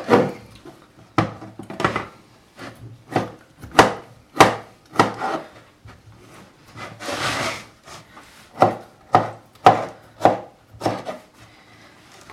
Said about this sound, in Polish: ponieważ e, reszta e, sałatki też będzie dosyć drobna, kroję pomidor na małe kawałeczki, tylko odrobinę większe od e, ziarenek kukurydzy.